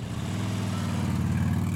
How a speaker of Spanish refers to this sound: Cuando se subió a su motocicleta y estaba a punto de irse, algo inesperado sucedió. Otra motocicleta apareció de manera violenta y él sonrió y aceleró su vehículo.